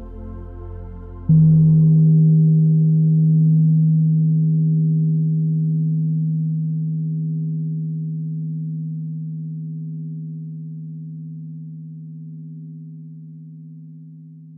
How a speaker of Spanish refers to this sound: Vamos a comenzar con el sonido del gong. Escúchalo y concentra toda tu atención en este sonido hasta que se termine.